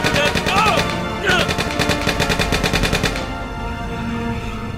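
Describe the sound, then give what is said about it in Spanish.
A loud machine gun burst of rapid, evenly spaced shots rattles for about two seconds, then cuts off abruptly. The gun is fired from a car by a lone driver who steers with his left hand, holding the gun in his right and resting it on the window. A brief cry rises just before the firing begins. “no tienen tiempo de ver que el solitario conduce con su mano izquierda mientras sujeta con la derecha una metralleta.”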